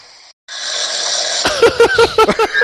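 A recorded snore plays from the SnoreLab app on a phone through a small, tinny speaker: a long raspy inhale, then a quick run of harsh, rattling snorts. No one speaks.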